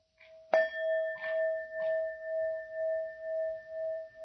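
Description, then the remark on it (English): A single meditation bell is struck once, ringing out with a clear, sustained tone that hums and pulses slowly as it lingers, alone with no voices. “In just the moment of hearing, is there a bell?”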